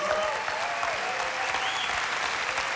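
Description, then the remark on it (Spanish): A large church audience claps steadily and enthusiastically as applause for God, a dense, continuous wash of applause for the whole stretch, with faint crowd murmur beneath. “¿Quién le puede dar un aplauso a Dios?”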